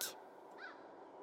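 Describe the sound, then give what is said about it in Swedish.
A short, harsh screech from a magpie sitting in a tree rings out once after a brief noisy burst, fairly faint, with no voices around it. “Trollbarnen blev genast lite nyfikna på fågeln som satt där och skrek.”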